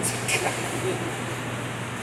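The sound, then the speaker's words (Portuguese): A hair dryer runs steadily, a constant loud airy whoosh with a low motor hum underneath, holding the same level throughout with no pauses. “É um secador de cabelo.”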